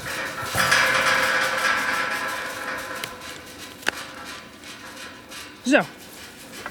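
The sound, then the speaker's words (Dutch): A metal field gate to a cow pasture creaks and grinds as it is swung open, then a sharp clank and a final high squeak as it shuts, outdoors in sunshine, with one brief spoken word. “We staan hier voor een hek, dat moet even open.”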